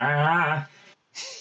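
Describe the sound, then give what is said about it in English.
A voice acts out a startled gasp on waking from a nightmare: a sharp, loud voiced cry, then a breathy exhale, a brief pause, and a quick panting breath. “That's the sound of a nightmare having.”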